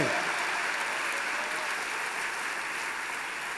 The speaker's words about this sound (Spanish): Wow, ahora sí aplauda al Señor con fuerza.